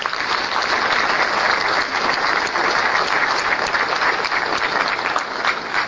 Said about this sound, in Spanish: Eh, qué bendición que tenemos tantas personas aquí, qué bendición. Un aplauso por ustedes, gracias.